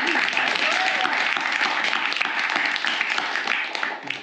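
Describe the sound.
Sustained audience applause, a dense crackle of many hands clapping at steady loudness for several seconds, tapering off slightly at the end, with faint voices mixed in.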